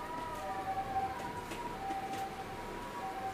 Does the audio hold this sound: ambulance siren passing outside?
yes